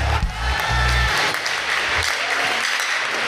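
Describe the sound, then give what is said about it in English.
An audience at a Sunday night service claps their hands in a loud, dense burst of applause that runs steadily throughout, with a low rumble underneath and no clear speech. “Clap your hands and shout, Rest.”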